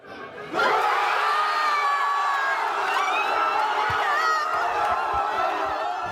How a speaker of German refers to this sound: Er kam von tiefstem Herzen und aus Millionen Kehlen. Der Schrei nach dem Elfmetertor von Montiel